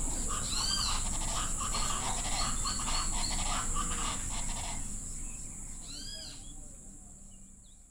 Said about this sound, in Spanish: El paso rápido y bulloso de las loras hacia sus refugios en el monte. Y la algarabía de las guacharacas, que aunque no abandonan el bosque, también están presentes despidiendo el día.